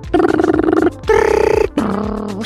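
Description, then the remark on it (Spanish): A voice imitates a dial-up modem connecting to the internet over a telephone line: three loud, buzzy, harmonic bursts in a row, the second higher and brighter, the last lower and wavering, with no spoken words. “Ah, que se conectaba de la línea de teléfono, entonces tenía que esperar el, dial-up, el...”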